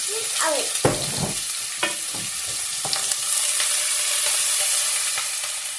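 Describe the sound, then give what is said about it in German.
Hot olive oil spatters and crackles in a frying pan with onions, a dense steady sizzle with sharp pops and clatters early on, fairly loud, no voices. “Vorsicht, das spratzelt jetzt ein bisschen.”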